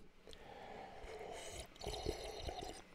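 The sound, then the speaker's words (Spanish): Wet, gurgling slurps as someone sips horchata noisily from a mug, a few loud drawn-in pulls with no talking. “Y antes de empezar el programa, voy a aprovechar y ya que tengo aquí una taza llena de horchata, voy a darle un trago.”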